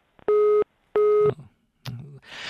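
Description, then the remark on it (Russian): A loud telephone busy signal after a dropped phone call sounds twice, two steady mid-pitched beeps about half a second apart, followed by a brief voice and a burst of hiss. “Сорвался звонок.”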